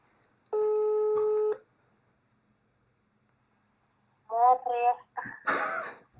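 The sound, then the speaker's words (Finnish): A single steady electronic ringback tone of an outgoing phone call to Porvoo sounds for about a second, followed by a pause of silence, then a voice answers on the line. “Tuosta sitten laitetaan Porvoon suuntaan soitto menemään, niin...”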